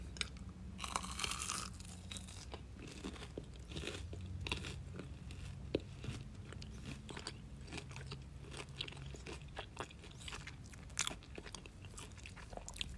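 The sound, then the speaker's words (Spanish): Crunchy chewing of a small cheese skewer snack, with repeated crisp bites and crackling crunches in an irregular rhythm, loud, with no talking. “Ay, esto es como una como una brochetita de queso.”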